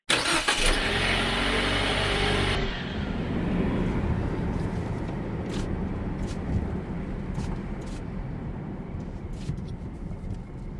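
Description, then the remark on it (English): A car cruises solo along an interstate highway on the open road: a loud, steady road roar and engine rumble, with a brief tonal engine whine at the start, then continuous tire noise and occasional faint clicks. No one speaks. “Driving solo along the open road has always been a meaningful time for me a time of discernment and transition, a time when I can connect with the holy and discover how the Spirit is moving in my life.”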